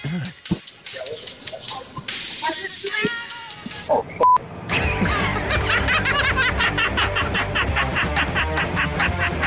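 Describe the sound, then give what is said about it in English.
A chicken clucks in quick, choppy bursts, starting in scattered calls and then running into a dense, steady stream of fairly loud clucks for the last several seconds. “Quick chicken.”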